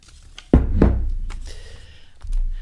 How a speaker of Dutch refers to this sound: Ik ga eens even schudden met de pot.